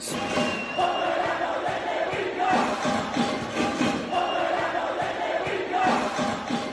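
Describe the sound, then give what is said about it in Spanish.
A large crowd of university students at the University of Camagüey shouts and chants in unison in protest after more than 10 hours without electricity, voices rising in repeated rhythmic waves, sustained and loud throughout, heard from within the gathering. “En la Universidad de Camagüey, Ignacio Aramonte Loina los estudiantes se cansaron y se manifestaron después de estar más de 10 horas sin luz.”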